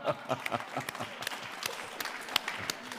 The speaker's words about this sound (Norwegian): Skal vi klappe for det? Ja.